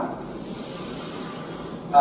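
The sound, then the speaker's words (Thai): A long, slow, deep breath drawn in as breathing-exercise practice, heard as a steady airy hiss that holds evenly for almost two seconds before a brief shift at the very end. “ซ้อมหายใจเข้า หายใจลึกยาวช้า”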